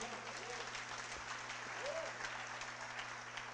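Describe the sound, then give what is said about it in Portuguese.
An audience claps steadily in applause to the Lord, a dense wash of many hands applauding at even loudness for several seconds, with faint voices mixed in beneath the clapping. “Pode aplaudir o Senhor.”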